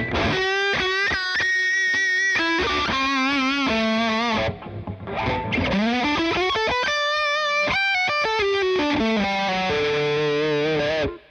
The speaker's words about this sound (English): it's almost a little bit like uh, even with just plain old distortion, it's it's a little bit more like uh, you hear the octave come out. Yeah. Uh, like you would if you had a, um, a, um, like a clean octave, octave boost